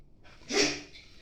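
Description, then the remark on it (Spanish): A single sharp, breathy snort or sneeze from a dog named Ringo waiting to go for a run, a brief burst of air that fades quickly into quiet with a faint trailing breath. “tengo perritos, Aquí está Ringo esperándome para que vayamos a correr.”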